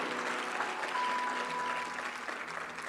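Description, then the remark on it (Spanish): An audience applauds for Christ steadily for about three seconds, a dense wash of many hands clapping with no single claps standing out, holding an even loudness before easing slightly at the end. “Dele un fuerte aplauso al Cristo que guardó silencio por amor.”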